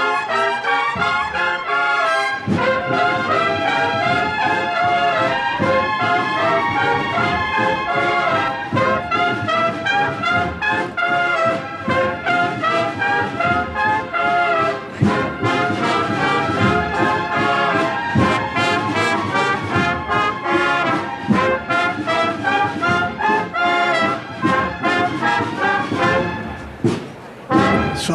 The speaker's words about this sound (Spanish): Suena la banda de …